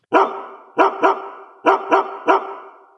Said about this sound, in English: Hey, do you hear that? What is that? It's the bark heard round the world.